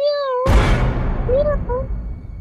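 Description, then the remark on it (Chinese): A woman's voice imitates a cat's meow from her throat: a drawn-out, high, wavering cry, then a sudden loud burst of harsh noise with a few shorter rising meow-like calls beneath it. “对这个猫叫是这个女人装出来的。”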